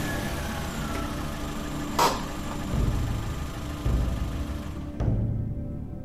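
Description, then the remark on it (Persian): A car engine runs with a steady low rumble, broken by a few sharp knocks and bumps, as the car is driven into the yard of a house; no one speaks. “ماشین آوردم تو حیات اومدم تو خونه”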